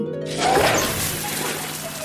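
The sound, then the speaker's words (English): A loud, steady rush of spraying water hisses for about two seconds, continuous, as Belle's water cannons squirt two jets of sparkling water toward an animal truck, with no one speaking. “Belle used her water cannons to squirt two jets of sparkling water towards the animal truck.”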